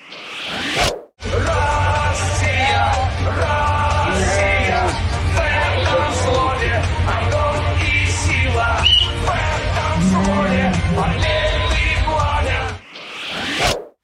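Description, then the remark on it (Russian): A large flock of rams with the letter Z on their backs moves along a road, being driven to summer pasture, with overlapping bleats over steady shuffling hooves and a low rumble. The sound is continuous and dense. “Да, правильно ли я понимаю, что стадо баранов с буквами Z на спинах, да?”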